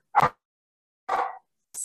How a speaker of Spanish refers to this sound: perdón, perdón, tengo unos cachorros por ahí.